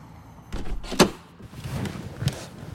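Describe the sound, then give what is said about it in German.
Someone climbs into a brand-new black Tesla Model S sports car: rustling movement, a solid door thunk near the start, then a softer knock or latch sound as they settle in. No one speaks. “Pierich steigt in den Wagen ein.”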